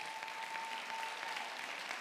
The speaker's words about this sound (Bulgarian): О, ако ръкопляскаш, ръкопляскай, като че ти вярваш в Божието Слово.